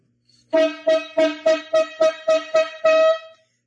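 A brassy horn honks eight times in a quick rhythmic pattern, each blast loud, with the final honk held a little longer, and no voices.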